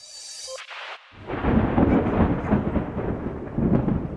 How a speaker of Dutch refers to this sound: Je hoorde dondergeluiden, onweer.